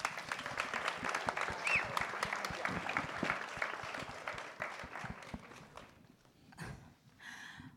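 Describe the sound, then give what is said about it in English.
An audience claps steadily in a dense, sustained burst of applause for about six seconds, then it thins out and fades, leaving a few scattered sounds. “I think we can give her a round of applause.”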